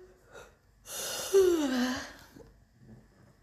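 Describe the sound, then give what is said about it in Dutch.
A single long, breathy yawn, fairly loud, sliding downward in pitch as it trails off into a soft exhale, with quiet room tone before and after. “Misschien Oeh, even geeuwen.”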